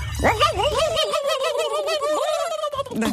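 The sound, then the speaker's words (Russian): A person mimics a turkey's gobble with a rapid, warbling, high-pitched trill that stays loud for about three seconds before breaking off. “Э, эти индюки.”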